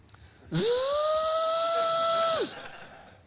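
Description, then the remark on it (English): A voice imitates a dentist's drill with a loud, steady, high-pitched whine and hiss that rises in, holds for about two seconds, then drops off abruptly. “You gotta like the sound effects, but I remember sitting in that chair.”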